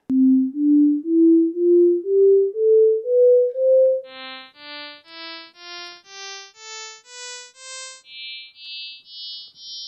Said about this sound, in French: Donc, ces exemples illustrent bien le fait que la fréquence fondamentale, déterminée par la périodicité des sons, peut être perçue en l'absence de la fondamentale elle-même, et même dans cet exemple ici, en l'absence des neuf premières harmoniques.